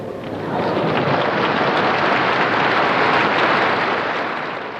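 Dense, steady applause from a large crowd after a speech, a continuous wash of clapping that swells in, holds evenly for several seconds, and tapers slightly at the end, with no voices heard.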